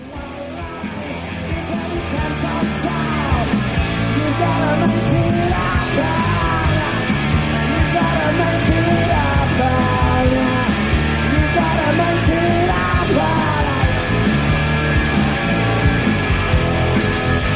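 A live rock band plays loud and dense at a 1996 festival in Utrecht, with a male singer straining and yelling over the guitars, his voice worn, rough and breaking on the high notes, crowd noise blended in.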